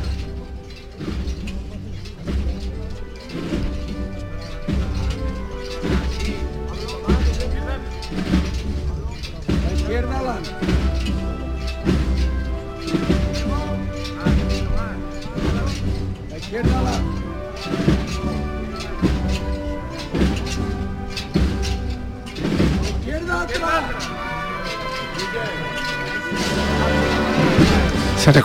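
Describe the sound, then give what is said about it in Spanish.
Acorn-shaped metal tassels clink against canopy poles in a steady, swaying rhythm, a dense jangle of bright metallic strikes that swells louder toward the end, with faint voices underneath. “escuchado las campanitas del cielo, ¿verdad? Esas bellotas chocando contra los varales.”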